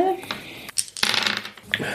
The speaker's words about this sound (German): Würfel mal.